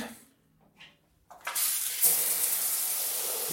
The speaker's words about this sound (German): So, als allererstes gibt es eine Dusche.